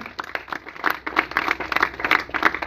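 A crowd applauds steadily for the one who lives and reigns, many hands clapping in a dense, bright patter that rises and falls slightly over a few seconds, with no voices standing out.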